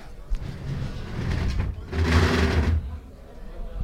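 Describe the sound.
Heavy parts of a religious brotherhood's procession float (paso) being dragged across the ground by its bearers: a low, rumbling scrape that swells into a loud, gritty grinding burst for about a second, then fades, with faint voices around.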